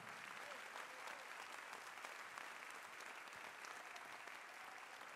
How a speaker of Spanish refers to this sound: ¿Alguien puede dar gloria a Dios? Fuerte ese aplauso al rey, hermano.